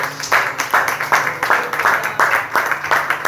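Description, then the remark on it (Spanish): A church audience breaks into sustained applause offered to God as the King of Kings, dense overlapping hand claps forming a steady, loud wash with a faint low hum underneath and no speech. “Den una ofrenda de palmas al Rey de Reyes.”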